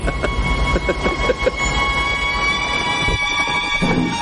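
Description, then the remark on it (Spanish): A steam train rolls past in a loud, continuous rumble, with a quick run of rhythmic clanks at first, then a steady roar and hiss; no one speaks. “Humo, hierro, vapor. Sería un excelente motivo para un cuadro, Turner.”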